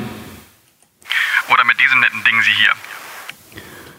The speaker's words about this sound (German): Aber jetzt kann ich natürlich mit der Hallanlage sprechen.